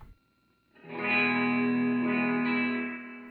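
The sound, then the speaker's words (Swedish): A sustained electric guitar chord rings out through an amplifier with the treble turned fully up, giving a bright, treble-heavy tone with effects, holding steady for a few seconds after a short quiet start. “Lik gör likadant med diskanten. diskansen är av helt. Mm. Diskanten fullt.”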